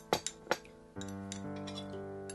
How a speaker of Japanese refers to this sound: 店内にカレーをスプーンでつつく音が響く。